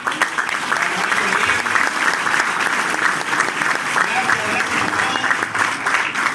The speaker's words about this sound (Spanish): Y hoy día estamos aquí, abriendo el mes, con tanta gente linda de Chiclayo. Vamos a darnos un fuerte aplauso por estar aquí.